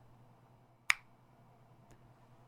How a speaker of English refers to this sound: Snap your fingers right next to your ear and listen.